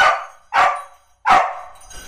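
An excited female search dog, Kaluna, barks three times in quick, slightly uneven succession, each bark loud, sharp and mid-pitched, with brief pauses between and no voices. She has picked up a scent and is running along corridors sniffing at doors and drawers.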